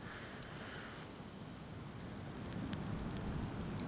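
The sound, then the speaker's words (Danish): A steady, dense crackling roar of fire burning through dry grass on a lawn, with sharp pops and snaps scattered across it and growing slightly louder toward the end; no voices. “Nu er der ildgræsplæne.”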